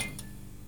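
A neon light tube flickers on, badly working and close to going out, giving a few sharp clinks: two close together, then a pause and another, while a low electrical hum with a faint whine runs underneath.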